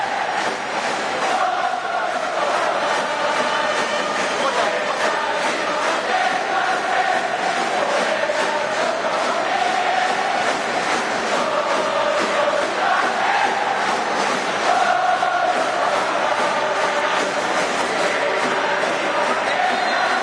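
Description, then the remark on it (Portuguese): A large crowd of Japanese football supporters sings a chant about courage, struggle and pride in unison, a loud, steady wall of massed voices carrying a wavering melody that rises and falls without pause for twenty seconds. “A segunda música fala sobre coragem, luta e orgulho.”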